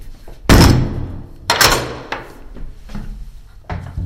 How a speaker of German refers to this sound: Das sind die Riegel, die dann oben und unten zugemacht werden.